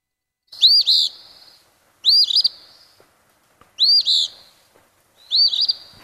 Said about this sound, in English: But the Eastern Phoebe has a very different sound. It has a rougher, sort of a burry sound. So let me play that one. Uh, Eastern Phoebe. Eastern Phoebe.